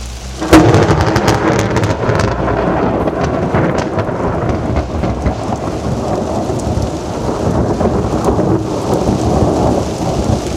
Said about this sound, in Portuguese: A água insistia em cair incessantemente havia um bom tempo.